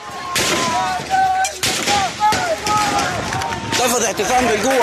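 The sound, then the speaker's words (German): Military gunfire with live ammunition during a protest massacre in Sudan: a few loud, sharp bursts crack out at irregular intervals over a crowd of people shouting and yelling in panic. “Das Militär hat immer wieder auch scharf geschossen, also vor allem auch anfangs während der Proteste.”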